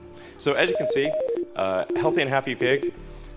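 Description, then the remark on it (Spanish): Rapid electronic beeps from a Neuralink brain implant in a pig's head, a real-time readout of its brain signals, stepping between pitches in irregular bursts with short gaps, fairly loud, with no talking over them. “the beeps you're hearing are real-time signals from the Neuralink in Gertrude's head”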